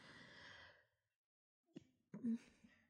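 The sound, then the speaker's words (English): A long breathy inhale, a brief pause, then a sharp sneeze bursting out with a short voiced catch, followed by a faint trailing breath. “Hold on, I have to sneeze.”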